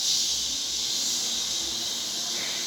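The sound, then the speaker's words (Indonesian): A person in a singing lesson makes a long, steady "sss" hiss like a snake as a breathing exercise, held without a break for almost three seconds at an even, fairly loud level. “Nanti di rumah dilatih yang S kayak ular.”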